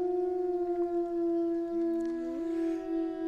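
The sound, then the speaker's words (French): Three wolves howl together in long, sustained tones, one voice sliding upward beneath a steady higher howl, forming an overlapping polyphonic chorus. “Et au-delà du jeu de mots qui nous donne à entendre ces chants de loups,”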